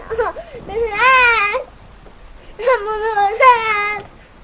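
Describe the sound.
A child cries loudly and close by in two long wailing bursts separated by a short pause, the voice rising and wavering with strained, sobbing pitch.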